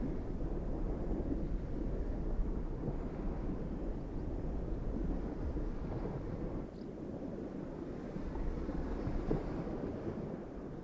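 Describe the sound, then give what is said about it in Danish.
A steady, deep roar of ocean waves rumbles continuously, briefly easing for a moment before surging back at full strength. No voices can be heard. “Og lyt lidt til bølgerne.”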